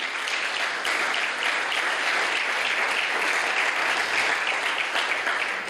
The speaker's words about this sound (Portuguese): Amém, amém. Aleluia, pode aplaudir.